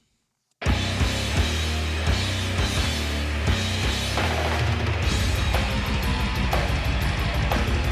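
Loud, dense death-thrash metal music by a band from Seattle begins after a brief silence. A sharp snare drum cracks repeatedly through distorted guitars and rumbling low end, driving a fast, steady rhythm with no voices.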